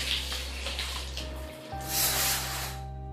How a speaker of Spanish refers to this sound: Apenas con el tiempo justo para darse una ducha, en un fallido intento de limpiar más su alma que el mismo cuerpo.